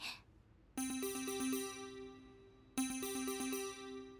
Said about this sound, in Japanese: コールがかかるすぐに応答する部長はなぜか音声だけではなく顔出しでニコニコしている